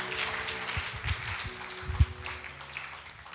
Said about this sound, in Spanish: Dale un fuerte aplauso a Dios porque Él es fiel. Amén.